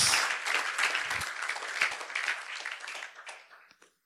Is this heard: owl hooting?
no